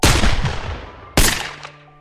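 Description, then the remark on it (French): Two loud, sharp pistol shots fired about a second apart by two men in a duel at dawn in the countryside, before witnesses, hitting no one; each shot leaves a short echoing tail that fades away, with no voices. “Mais les coups de feu ne touchent personne.”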